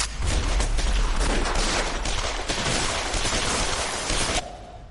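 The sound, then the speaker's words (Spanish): Loud, dense explosions and rapid gunfire from a TV series roar continuously for several seconds, a chaotic battle din with heavy low rumble, cutting off abruptly near the end. “Vaya, vaya, pues explosiones y una trama de lo más sesuda.”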